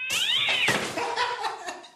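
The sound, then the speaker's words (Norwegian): A cat in a video lets out a loud, drawn-out yowling meow that rises and wavers, followed by a couple of shorter strained cries, clear with no talking. “Morsomt med, med katter som eh, blir redde for ting og sånn.”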